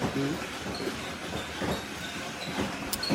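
A coffee grinder runs steadily, a coarse, rattling whir that holds at an even level for a few seconds with slight pulsing surges and no voices over it.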